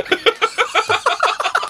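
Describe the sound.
A voice imitates the grey heron's call from the film How Do You Live? (The Boy and the Heron), as Masaki Suda does it, with a quick run of about ten short, harsh, clucking bursts in a steady rhythm, fairly loud, with no talking.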